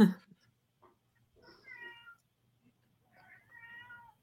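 cat meowing

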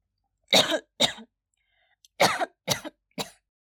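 coughing

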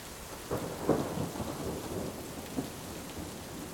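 thunderstorm with rain

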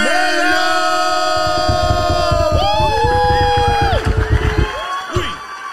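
audience applause and cheering

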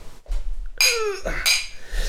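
glasses clinking

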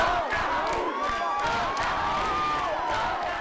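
concert crowd shouting

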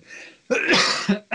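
cough

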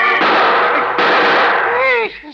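gunshots

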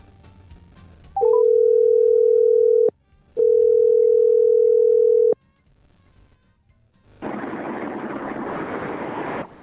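telephone dial tone

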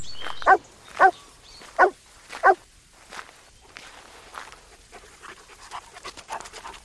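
dog panting and barking

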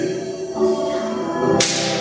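slap across the face

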